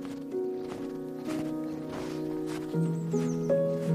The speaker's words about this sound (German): Aber das Einzige, was du hörst, ist der Schnee, wie er unter deinen Fußsohlen, unter deinen Schuhsohlen knirscht.